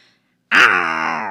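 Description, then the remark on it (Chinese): A voice mimics a tiger's roar: one loud, sustained "aoo" that bursts in after a brief silence, bright and harmonic, with a slight rising-then-falling pitch before holding steady. “这时候，老虎猫也在照镜子，嗷，不够威风，再来一次”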